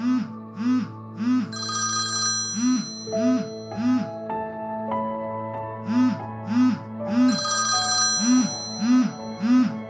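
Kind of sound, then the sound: household object, telephone ringing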